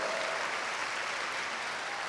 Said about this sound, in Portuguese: Sabe o que, é que significam essas palmas? Que você está de acordo com o anjo da igreja.